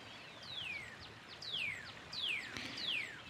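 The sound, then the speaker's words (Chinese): Four clear descending whistled jungle bird calls repeat at a steady pace, each sliding down in pitch, over a soft background hiss with no talking. “有没有听到一些丛林鸟叫声？”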